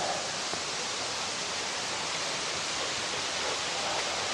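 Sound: waterfall rushing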